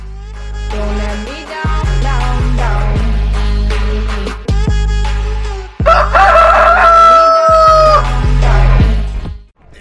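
A rooster crows loudly, its long drawn-out call rising and holding near the end, over a steady background of music with no talking.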